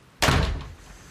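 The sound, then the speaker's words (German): A kitchen door slams shut once with a sudden heavy bang, then a short fading rumble, with no voices. “Und beide sind wie der Blitz wieder in die Küche verschwunden und haben die Tür zugeschlagen.”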